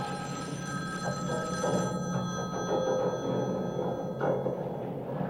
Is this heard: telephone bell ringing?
yes